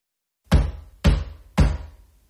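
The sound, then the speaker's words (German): Three loud, heavy knocks on Jay's door, evenly spaced about half a second apart, each a sharp thud with a short booming decay, with no voices. “Es klopfte dreimal laut an Jays Tür.”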